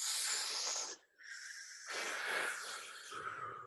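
Deep, drawn-out breathing as a person demonstrates how smoking a cigarette is done: a long airy inhale, a short pause, then a slow hissing exhale, fairly loud with no talking.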